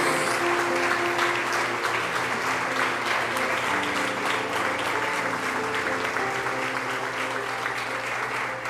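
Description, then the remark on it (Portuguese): An audience at a church service applauds in the name of the Lord after a prayer, steadily for the full length, a dense, even wash of clapping at a constant loud level, with a sustained musical tone humming beneath it. “Você pode aplaudir o no nome do Senhor.”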